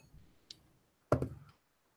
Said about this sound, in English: And because your score for criminal is a three, you're gonna see you're gonna roll three d6s, sorry, and oh. see how many of those roll above a three.